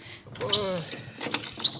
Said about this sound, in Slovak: Pozrieť, poďme sa pozrieť. Vchádzame cez červené, krásne, staré e, dvere.